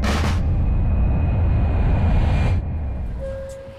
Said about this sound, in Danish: Vi sidder i tog et eller andet sted i Sverige på vej mod Lapland. Ja. Vi er faktisk lige kørt ud af Linköping.